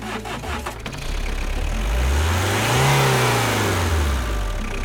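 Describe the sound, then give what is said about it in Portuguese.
A car engine revs up on a safari drive in the savanna, its pitch rising and then falling as it accelerates, loud and steady with no talking over it. “Agora entrando aqui dentro do carro.”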